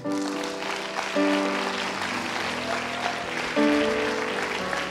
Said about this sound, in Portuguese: Vamos aplaudi-lo nessa.